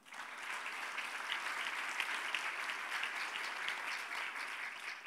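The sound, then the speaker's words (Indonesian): A crowd claps steadily in sustained applause, a dense, even wash of many hands that holds at a constant level for several seconds with no voices standing out. “Mana tepuk tangannya?”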